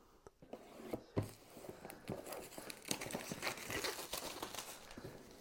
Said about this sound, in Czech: Ale ať už dál nezdržu, jdeme krásně sloupnout folii.